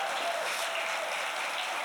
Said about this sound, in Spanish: Dele un fuerte aplauso al Rey de Reyes. Aleluya.